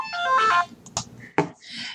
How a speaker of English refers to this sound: Uh, sorry for the uh, sudden ringing phone. That was just uh, a my father calling